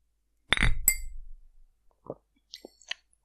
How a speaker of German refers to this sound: Ich sag mal Prost. Prost. Prost.